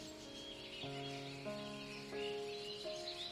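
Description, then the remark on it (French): A small bird perched on a person's bent knee on a boat whistles four sustained, steady-pitched notes in a slow sequence, each one starting cleanly after the last. It sounds moderately loud, with no talking. “Et sur ce genou replié, sur son, sur son sommet, il y a un petit oiseau qui s'y flotte.”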